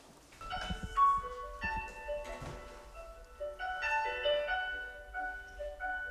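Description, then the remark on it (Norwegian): A recorded church choir of Biskop Havn church sings a slow passage, several voices holding sustained, layered notes that swell and shift together, with no talking over it. “Kan jeg få høre noen synge? Det kan du helt sikkert.”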